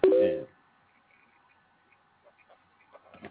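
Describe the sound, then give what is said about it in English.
A brief loud burst gives way to faint, steady telephone dialing tones over a quiet phone line while a three-way call is being set up, dotted with a few soft clicks and ticks near the end. “Once you get locked in on the three-way thing already, once you click over on your phone, it's considered a three-way.”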